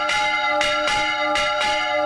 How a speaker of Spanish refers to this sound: El repique de campanas puede servir para avisar a la población de catástrofes naturales como incendios e inundaciones, del comienzo de actividades lúdicas, del anuncio de decretos y noticias. Las campanas no suenan igual en todos los sitios.